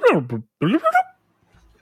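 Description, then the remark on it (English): A person vocally imitates robot noises: two fairly loud bursts of warbling, pitch-gliding tones, one sweeping down and one wobbling upward, followed by near silence. “There is no way in hell this movie hits theaters and is a movie that is just a cat meowing and robots going”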